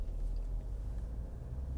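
A steady, low engine rumble fills the inside of a moving car, a constant droning hum with no voices or other distinct sounds over it.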